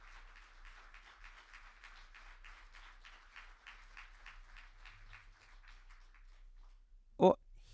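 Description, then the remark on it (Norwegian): An audience at a Skaperkraft event applauds the panel while each panellist is handed the book 'Kristendemokratiet'. A steady patter of many hands clapping fades gradually, then ends with one sharp, loud clap or bump. “Så gi dem en god applaus mens jeg gir dem en bok hver.”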